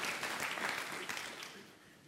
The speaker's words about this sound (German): Einen großartigen Applaus für unseren netten Freiwilligen.